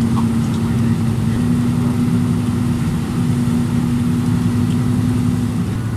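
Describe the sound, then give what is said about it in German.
A bus drives through a tunnel that runs through the rest of the mountain at the top of a pass, reached after a climb up hairpin bends: a loud, steady engine drone with a sustained low humming tone over dense rumbling road noise, unchanging for the whole stretch, with no voices. “Dort erreichten wir dann einen Tunnel, der durch den Rest des Berges führte. Da ist der Tunnel.”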